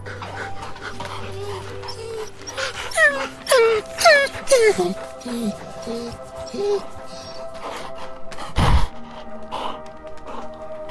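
Three dogs at a hostel gate whimper and whine as a person leaves, in a cluster of high, falling cries, several overlapping in quick succession near the middle, with softer whines and a brief thump around them.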